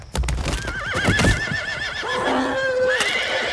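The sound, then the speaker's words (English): Horses ridden by gunslingers whinny shrilly and loudly in long, wavering cries, one after another, over a brief crash of heavy thuds and scrambling at the start as the horses fall into a canvas-covered trench and the riders are flung from their saddles; no voices. “The next thing he hears is the horses falling into the trench, the terrible breaking of bone, the astonished yelps of the gunslingers as they're flung from their saddles.”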